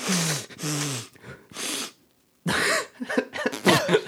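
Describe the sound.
A voice imitates someone laughing hard through the nose with muffled snorting, a run of loud, breathy bursts with a short pause in the middle, then a quicker, choppier cluster of snorts.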